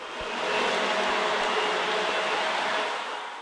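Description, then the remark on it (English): A steady, whirring rumble of model trains running along their track in a holiday train display swells in over the first half second, holds evenly, then eases off toward the end, with no voices. “if you're here running your trains and letting them run your trains with you, and their smile and the happiness and the parents and the whole holiday tradition, so to speak, that's our pat on the back and that's our thank you.”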